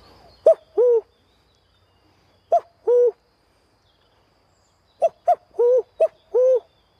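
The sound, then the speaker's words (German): A person's voice imitates a cuckoo, hooting the two-note 'cu-ckoo' call four times with pauses between, the final two calls coming quickly together, clear with no other sounds. “Also man kann mit der Stimme viel machen oder ein Kuckuck.”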